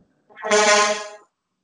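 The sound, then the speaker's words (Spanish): A single loud blast from the horn of a passing garbage truck, a brassy, steady tone lasting about a second before cutting off, with no talking around it. “Ah, ya, ya escucho, Gracias, amigo del camión de la basura.”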